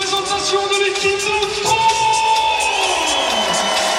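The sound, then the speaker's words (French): A crowd of a few hundred spectators cheers a French pair at an evening beach volleyball match on sand laid over the clay of court Philippe Chatrier, shouting at a steady, fairly loud level, with whoops and sustained calls rising over the general roar for about four seconds. “pour les encourager. Seulement quelques centaines de spectateurs.”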